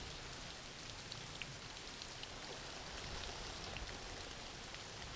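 Steady rain falling, a dense, even hiss with scattered tiny drop ticks and no talking, holding at a constant low level for the whole stretch.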